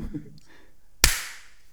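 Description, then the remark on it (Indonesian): One sharp hand clap cracks out after a brief murmur, its bright smack fading quickly into a short ring. “Ntar saya tepuk tangan dulu ya.”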